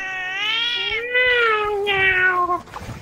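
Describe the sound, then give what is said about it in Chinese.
The household pet cat Amuro lets out one long, drawn-out, low-pitched meow lasting a couple of seconds, loud and rich in harmonics with a slight rise and wavering tone, then it breaks off into faint rustling. “我突然突然间觉得那个，我我突然间觉得我家的那个阿姆罗的声音是真的比较低沉的，就大部分的猫声音都挺尖的嘛，对，然后只有阿姆罗的声音啊”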